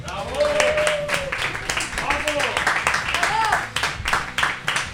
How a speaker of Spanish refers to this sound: Otro aplauso.